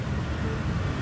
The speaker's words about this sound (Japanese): ゆっくりしながら今この音声収録していてもしかしたら路上ベトナムだとバイクの嵐クラクションだらけなのでクラクションの音が入っているかもしれませんがそれもベトナムの路地だとこんな感じなのかというところ音と一緒に楽しんでいただければと思います